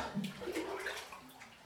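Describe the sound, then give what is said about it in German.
Bathtub water spilling over the rim, a steady splashing and gurgling rush that runs continuously for a couple of seconds with no voices. “Oh, das Wasser läuft über.”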